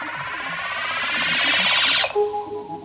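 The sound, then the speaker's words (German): A loud electronic tone from a Trautonium, an electronic musical instrument invented in Berlin, sweeps steadily upward in pitch with a pulsing, siren-like warble, then cuts off abruptly into a lower, steady hum. No one speaks. “Ja, Trautonium heißt das Ding. Wie klingt das? Den Vögelsound haben wir ja schon gehört, aber das Instrument kann noch mehr.”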